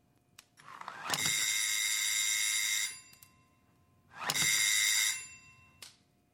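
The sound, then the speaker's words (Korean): A mechanical pull doorbell, yanked hard after a horse-drawn carriage arrives, rings insistently in two long, jangling bursts, the first lasting nearly two seconds and the second shorter, loud with a brief rattle between them. “홈즈의 말과 더불어 날카로운 말발굽 소리와 마차 바퀴가 연속에 쓸리는 소리가 들리더니 곧이어 와락 잡아당긴 초인종 소리가 다급히 들려왔다.”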